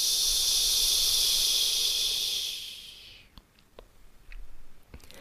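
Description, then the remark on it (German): A long, gentle hissing exhale on a 'ch' sound, breathed out from the pelvis up to the larynx in a pelvic floor exercise, a steady airy breath lasting a few seconds before fading into quiet with a few faint clicks. “Also wir atmen vom Becken zum Kehlkopf, langgezogen und zart ein Ich.”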